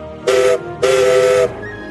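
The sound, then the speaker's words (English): Two blasts from the whistle of a little green narrow gauge steam engine working at a quarry, a short toot followed by a longer one, loud with a bright, breathy harmonic tone and no talking. “But he works hard at the quarry and has a whistle that sounds like this.”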